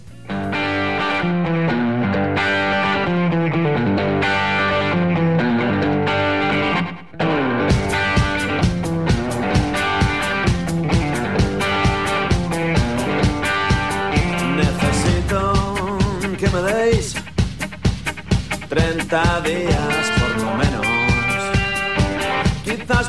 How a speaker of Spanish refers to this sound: el tema en cuestión que hemos elegido se llama …, ellos son los del …